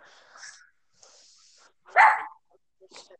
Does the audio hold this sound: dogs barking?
yes